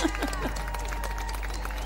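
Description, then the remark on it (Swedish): A short burst of applause, dense overlapping clapping that stays fairly steady and moderately loud for about two seconds, with some voices and a thin tonal hum mixed underneath. “Oj, du ska ha en liten applåd.”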